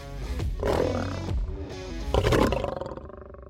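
A lion's deep, rumbling roar rises in two powerful surges, loud, before fading out over a few seconds with no voices present.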